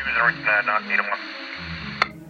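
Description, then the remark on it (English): A crackly, tinny voice comes through a two-way radio in hotel room 214 of the Watergate, over a steady bed of static hiss, followed by a brief pause and a sharp squelch click near the end. “Meanwhile, in hotel room 214 of the Watergate, two men are listening intently to a two way radio.”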